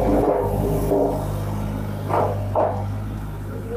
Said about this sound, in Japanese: ちょうどねまた工事やってたりとかして今音が入ったと思うんですけど